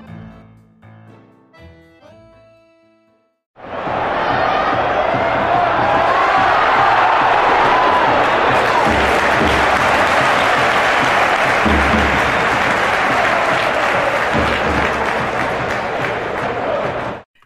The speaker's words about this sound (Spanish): Ese es el sonido inconfundible de la grada del estadio, con la afición animando a los equipos.